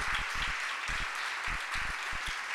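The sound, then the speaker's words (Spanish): An audience applauds for the Lord during a Spanish-language sermon, many hands clapping in a dense, continuous wash with scattered sharper claps standing out, sustained throughout without any talking. “Dele ese aplauso al Señor.”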